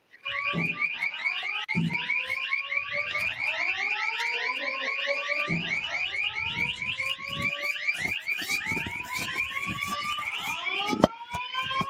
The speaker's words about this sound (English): That's the fire alarm sounding, and there's strobes flashing. The horn and strobes are sounding.